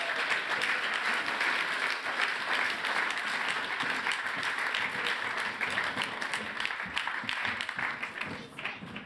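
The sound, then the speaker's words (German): Sustained audience applause for a group of teens called up onto the stage, a dense wash of many hands clapping at steady loudness for the whole stretch, easing slightly only at the very end. “Geben wir ihnen einen herzlichen Applaus”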